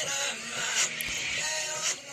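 A pop song played in reverse, a dense wash of backward vocals and instruments with swelling, sucking attacks, steady and fairly loud with no one talking over it.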